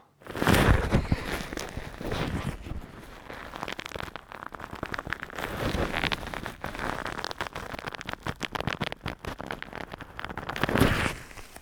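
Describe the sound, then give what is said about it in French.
Continuous rubbing and scraping of a microphone against leather, with dense crackling friction that swells and fades in several strokes over about twelve seconds, no voices. “Sur cuir.”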